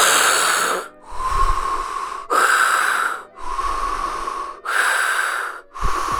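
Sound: imitated heavy breathing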